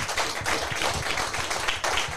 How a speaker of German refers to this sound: Kleiner Applaus, Benjamin Eisenberg. Grandios, grandios, wirklich.